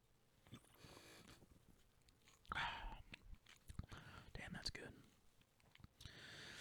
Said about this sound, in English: I gotta take a sip and I'm just gonna drink a beer while I say that, you know? Take a sip.